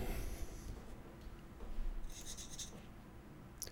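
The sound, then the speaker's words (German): Soft, continuous scratching of pens moving across paper during a quiz, with a few brighter strokes near the middle and a quick tap at the end, all faint. “Stifte bitte weg.”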